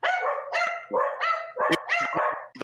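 Several dogs bark loudly and continuously during a call, overlapping yaps and yips in a rapid, busy chorus with brief gaps, no talking.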